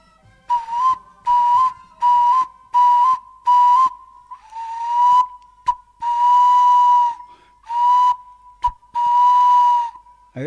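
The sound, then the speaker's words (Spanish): A person whistles an imitation of an eared dove's (torcaza) call: five short, evenly spaced notes, then longer drawn-out whistles at a steady pitch. The whistling is loud and alone, with no talking. “esa es la torcaza.”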